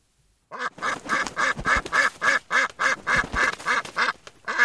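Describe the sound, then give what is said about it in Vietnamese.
A duck quacks loudly and rapidly as it leaps out from the foot of a wall on a dark road, a steady run of about a dozen nasal quacks, with no other sounds around it. “Cậu đang giơ tay mỏ mẫm dưới chân tường tìm túi sách thì bỗng có một con vịt nhảy vọt ra.”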